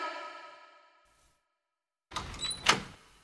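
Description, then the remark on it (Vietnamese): A fading ringing tone trails off into a second of silence, then the back door of a meeting room bursts open with a loud rattling scrape and a sharp clack, followed by shuffling noise as a man is dragged in. “Khi này, cửa sau mở ra, Kim Thách Quang bị lôi vào trong.”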